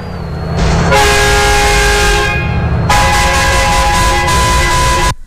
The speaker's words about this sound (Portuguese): Você pode mandar um buzinaço. Que cornetada.